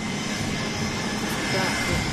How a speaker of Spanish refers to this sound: En la pista, un avión nos espera. Es muy pequeño, similar a un jet privado.